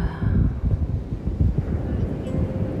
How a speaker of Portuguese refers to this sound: Sente o vento batendo no teu rosto e solta, expira.